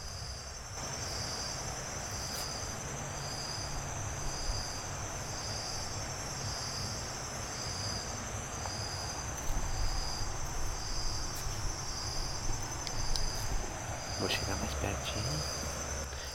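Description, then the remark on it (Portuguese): A steady, broad rush of the Paraná River flowing strongly at night, heard in the dark from a riverbank under a tree about 6 metres from the water, where the Sete Quedas falls once were, with crickets pulsing in a high, even rhythm over it throughout; no one speaks. “Vou fazer um silêncio aqui, vamos ouvir o, o rio.”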